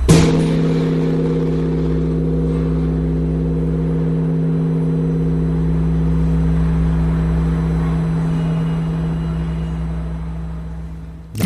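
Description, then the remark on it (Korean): The large bronze Bosingak bell is struck once at a bell-ringing ceremony after a countdown, and its deep, humming resonance rings on steadily and loudly for over ten seconds with a slow wavering pulse, no voices present. “이, 이 울림이, 아, 종소리가 다 좋지만, 보신각종은 그 네.”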